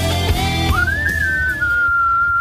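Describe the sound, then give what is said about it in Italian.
Someone whistles a single long note, rising in pitch, then holding steady, imitating a starting whistle. It is fairly loud, over a low background hum. “se mi fai il fischio iniziale”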